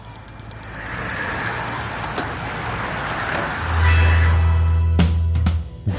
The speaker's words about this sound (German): Wir sitzen also hier im Bus und fahren nach Raubling, nochmal südlich von Rosenheim